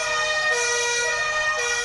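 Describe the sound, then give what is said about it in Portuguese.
A fire truck siren wails loudly and continuously, its tone sliding gently up and down, with no voices over it, as the fire truck carries athletes from the airport through the streets of Florianópolis. “Eles saíram do aeroporto em cima do carro dos bombeiros.”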